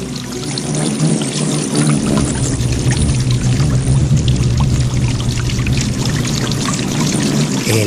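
A dense, steady whir of the wings of 29 hummingbirds buzzing around a basin of sugar water, with scattered high chirps flickering over the continuous hum throughout.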